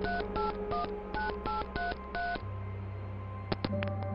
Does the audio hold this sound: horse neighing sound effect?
no